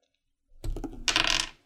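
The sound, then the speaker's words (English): Dice rattle and clatter across a hard tabletop in a quick burst lasting about a second, ending with a brighter scattering of clicks as they tumble. No voices. “and then, uh, oh, dice fell off the table.”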